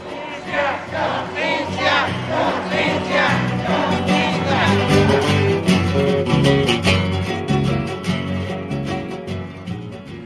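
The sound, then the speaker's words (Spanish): A large audience at a dialogue event applauds loudly and steadily for about ten seconds, with cheering and shouting voices mixed into the clapping. It sounds full throughout. “Pues un aplauso, compañeros y compañeras, para quienes nos han dado una historia digna en el estado de Guerrero.”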